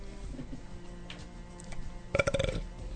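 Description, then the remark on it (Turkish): A single short sneeze bursts out after a stretch of quiet background hum, a brief breathy blast with a voiced, slightly tonal edge that fades quickly. “çok yaşa”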